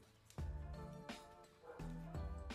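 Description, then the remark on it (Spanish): A neighbor's small dog barks about four times in quick, uneven succession, the yaps sounding slightly muffled through a closed window, with no one talking over them. “O sea, hay, un perro de un vecino que cuando se van es de esos perritos de.”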